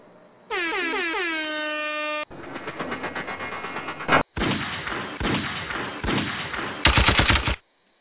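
A blaring, pitch-bending horn blast gives way to several dense bursts of gunshot sound effects ending a show, loud rapid fire in close succession with short breaks between volleys and no talking.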